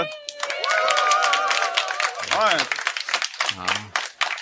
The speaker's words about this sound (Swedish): Denna gången live på Bokmässan i Göteborg inför eh, rekordstor publik på digitala scenen i år. Eh, kan man få höra en litet eh, applåd eller vrål från publiken så...